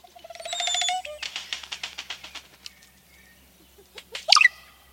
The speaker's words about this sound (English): Oropendolas sing a startling refrain.